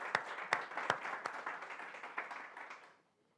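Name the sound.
audience applauding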